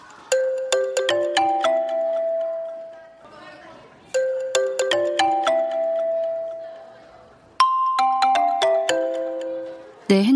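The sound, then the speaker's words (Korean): A mobile phone app's Islamic prayer-time alert plays a bright, bell-like chime melody, clear, repeating its short tune about three times with brief pauses between. “핸드폰에서 이슬람 예배 시간을 알리는 소리가 들렸다.”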